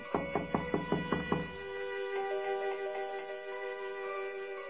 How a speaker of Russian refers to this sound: Вошел и постучал в парадное.